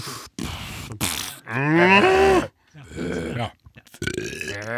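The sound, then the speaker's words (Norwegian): A man's voice imitates a cow, letting out several drawn-out, groaning moos in a row, fairly loud, with brief pauses between them. “du må lage sånne lyder.”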